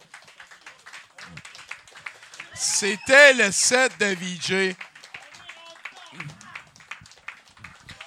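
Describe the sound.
A crowd at an evening event claps steadily throughout for two people, a dense patter of hand claps, while a loud voice shouts and cheers over the middle part before the clapping carries on under speech.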